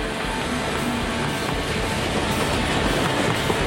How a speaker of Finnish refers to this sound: Kiihtyvä juna etenee kohti ratapihan tulovaihdetta, saapuen sivuavalta raiteelta kohti linjaa, Jolle nyt pääset takaisin, juna ei pysäytä mikään.